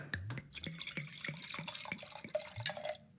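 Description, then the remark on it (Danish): Californian wine pours into a glass in a quick series of glugging, gurgling bursts, each with a falling pitch, followed by a bright clink and a rising fill tone. No one speaks. “Og øh, kan jeg lige skænke noget op først?”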